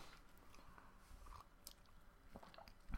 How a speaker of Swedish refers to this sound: tänkte vänta tills du hade sörplat. Tack. Annars kan ju det bli introt det här.